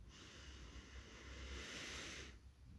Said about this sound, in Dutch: En neem nog één keer een hele diepe ademhaling, diep in via de neus.